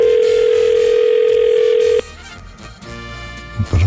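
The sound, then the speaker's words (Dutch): A telephone ringing tone heard while calling a farmer for the Ego Show: one steady, mid-pitched electronic beep lasting about two seconds, then cutting off, leaving faint background noise with a few soft bumps. “Even het nummer intoetsen.”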